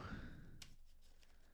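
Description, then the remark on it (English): A deck of cards being shuffled, quiet papery rustles with a brief sharp riffle burst and a few softer flicks after it, with no talking. “Shuffling the deck a little bit.”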